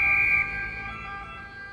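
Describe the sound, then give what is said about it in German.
An emergency vehicle siren in Rome, in front of a top tourist sight, wails with a steady two-tone pitch, loud, holding a sustained note over a low rumble of street traffic with no one speaking. “neben dem Verkehr, dem Hupen und dem Martinshorn von Einsatzfahrzeugen hört man in Rom auch immer wieder diese Drillerpfeifen”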